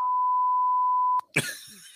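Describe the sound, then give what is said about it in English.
A single steady censor beep from a beep button, a pure high tone held for over a second, cuts off abruptly and is followed by a sharp burst of noisy sound with no speech. “I got my beep button ready.”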